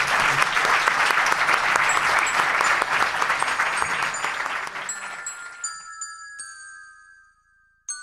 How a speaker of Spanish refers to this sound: Un aplauso, por favor, para